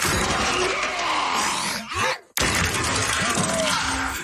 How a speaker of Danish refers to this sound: Altså hvis man, øh, hvis man inden man skal i gang med noget som helst, øh, øh, øh har en, en vibrator, der lyder sådan her...